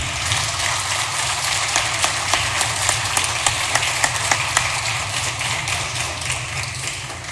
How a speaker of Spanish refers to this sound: Quiero en este momento recordar a, la hermana de la vicepresidenta, Marilena Moyano, una gran luchadora por los comedores y el vaso de leche, y decir, yo pido un aplauso para Marilena.